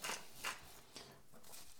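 Himalayan rock salt being ground in a hand mill, a series of gritty, crackling twists in short repeated bursts, fairly loud with no talking.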